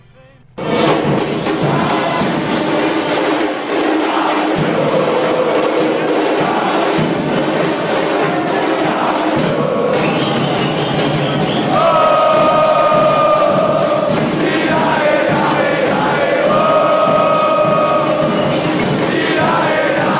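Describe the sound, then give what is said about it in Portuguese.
A huge crowd of Boca fans at the Engenhão stadium in 2012, celebrating right after eliminating Fluminense, sings an adapted samba song in unison, a loud continuous wall of voices whose melody rises and grows stronger in the second half. “Então aqui eu peguei uma versãozinha que é a torcida do Boca no Engenhão em 2012, logo após ter eliminado o Fluminense, então a torcida saiu numa baita festa e fez essa adaptação aí”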